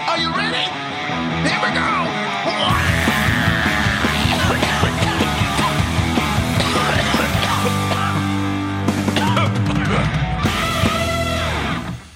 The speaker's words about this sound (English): To scream. It's always the scream that gets me. I like the the clearing of the throat at the end